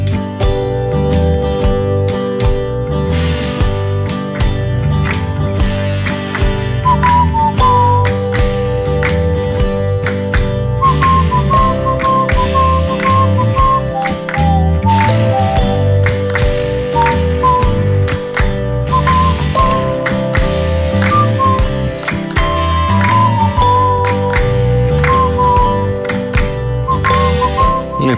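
A song plays loudly and continuously, with a steady pulsing beat, sustained chords underneath and a high, wavering melodic line weaving over the top; no voices are heard.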